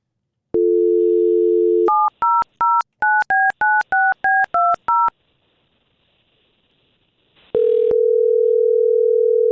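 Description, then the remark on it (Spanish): A steady telephone dial tone, then about ten quick, evenly spaced touch-tone beeps as a number is dialed. After a short silence and a click, a steady tone sounds again. No one speaks. “Ok, márcale. me ayudas ahí. Márcale entonces.”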